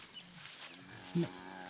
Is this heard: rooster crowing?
no